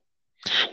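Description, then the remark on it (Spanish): A single sharp sneeze bursts out after a moment of silence, fairly loud, with a breathy, hissing burst that fades quickly. “Salud.”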